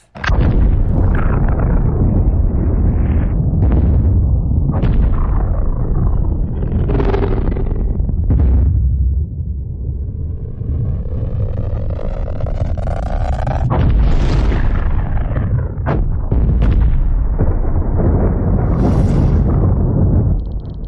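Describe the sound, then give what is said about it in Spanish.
A huge atomic bomb explosion: a sustained, heavy roaring rumble for about twenty seconds, punctuated by repeated sharp cracks and bursts, with a rising whistling whine partway through. No voices. “Digamos que atómico.”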